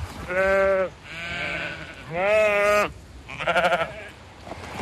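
Several sheep bleat in turn on a mountain farm at about 1000 metres with a view over the Alsace plain. Each call is a drawn-out, wavering baa, with a final shorter, fluttering one. The calls are loud and clear, with no talking over them.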